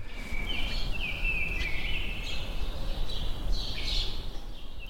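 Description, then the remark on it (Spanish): Birds sing and chirp continuously outside an open window in the Malasaña neighbourhood of Madrid, their high, warbling calls over a steady low rumble of outdoor ambience. No one speaks. “Voy a probar a abrir la ventana para, que escuchéis esto.”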